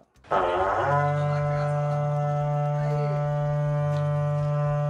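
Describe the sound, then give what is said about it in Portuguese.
A berrante cattle horn blown in one long, loud, steady blast with a deep, buzzing tone, sustained for several seconds with no talking over it. “toca o berrante porque é hora de mandar o gado embora para falar de política.”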